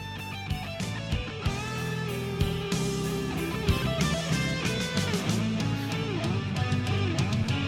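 Custom intro music: an upbeat track plays steadily with layered instruments, sustained tones and regular percussive hits, filling the whole stretch at a fairly even, moderate loudness with no talking over it.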